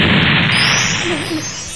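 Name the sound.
explosion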